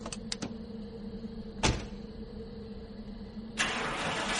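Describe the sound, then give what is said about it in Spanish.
A few quick clicks, then a car engine cranks and catches at night as the car sets off for a hospital, settling into a steady low idle before revving up louder toward the end, with no talking. “arranca el coche y se dirige al hospital.”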